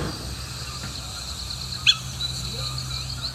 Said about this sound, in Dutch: Intussen heb jij volgens mij wat gevonden als het over de geluiden gaat? dit is het bekende roepje van, van de steenuil.